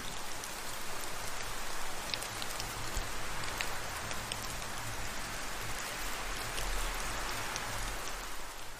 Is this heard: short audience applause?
no